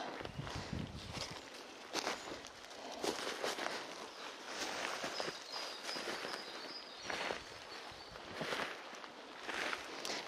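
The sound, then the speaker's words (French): Footsteps in hiking shoes crunch unevenly across a rough, steep slope, walking sideways across it, a steady series of scuffing steps on dead leaves, with no voices present. “je marche en travers en mode dahu.”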